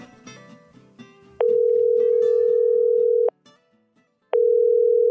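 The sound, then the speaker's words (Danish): After a brief bit of background music, a loud, steady telephone ringing tone sounds in long bursts, holding for about two seconds, pausing, then starting again, on a call to the Nationen-telefonen line before its answering message. “Du har ringet til Nationen-telefonen. Læg venligst din holdning efter bippet”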